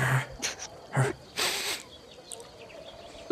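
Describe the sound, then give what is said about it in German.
A person imitates a dog sniffing at someone: four short, breathy snuffling bursts over about two seconds, the last one longest, followed by quiet. “Schnuppert so ein bisschen an dir?”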